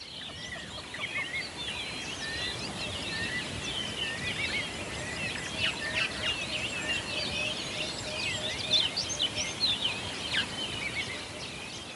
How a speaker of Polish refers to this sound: ale zanim zaczniemy, jingle, czyli 15 sekund relaksującego śpiewu ptaków.